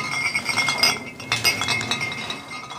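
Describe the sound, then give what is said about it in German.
Glasses clink and chime repeatedly while drinks are being poured from a drinks cart, a cluster of bright, ringing taps with no voices. “Oh, ich höre, ich vernehme Schankgeräusche. Der Alkoholwagen ist da.”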